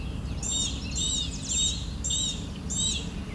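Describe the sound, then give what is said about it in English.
An orchard oriole sings a series of about five bright, whistled, slurred notes in a steady rhythm over a constant low rumble of outdoor background noise. “And yes, there is totally an orchard oriole here that I'm now hearing.”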